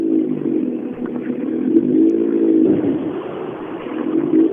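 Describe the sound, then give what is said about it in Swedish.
A rally car engine revs steadily, its harmonic drone rising and falling slightly, then dips and climbs again as the driver takes the card from the time-control car, shifts into first gear and pulls away, in a Swedish championship (SM) rally. “Där får de kortet från TK-bilen och eh, smäller i första växeln.”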